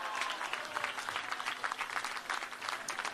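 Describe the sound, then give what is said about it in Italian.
Steady applause from a crowd for the third-placed team, the Magratea, with 61 points; many hands clapping in a dense, continuous patter that holds at an even, fairly loud level throughout, with no voices standing out. “Complimenti. Un applauso.”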